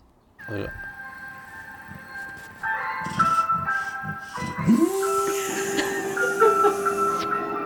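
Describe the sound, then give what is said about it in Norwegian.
An ice cream truck's tinkling jingle plays steadily, and partway through a dog indoors joins in with a long, rising howl, lifting its snout into the air, holding over the melody until the end. “Da er det på tide med hund som reagerer på isbil.”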